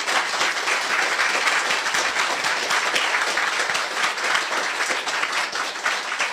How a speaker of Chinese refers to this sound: 让我们再次以热烈掌声感恩林南教授。